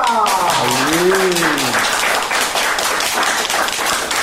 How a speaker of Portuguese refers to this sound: E eu quero uma salva de palmas para todos da Concafra!